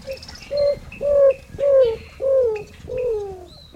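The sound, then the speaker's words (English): A roadrunner's cooing song: five low, mournful coos, each sliding slightly downward, delivered at a slow, steady pace, with faint chirps from other birds in the background. “Have you ever heard a roadrunner sing? That's the maker of this cooing sound.”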